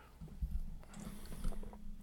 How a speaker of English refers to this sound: Yeah, gotta take a, yeah, take a sip of water.